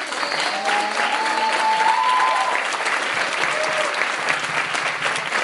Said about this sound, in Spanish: Vamos a empezar con un aplauso, por favor, para que para despertarnos.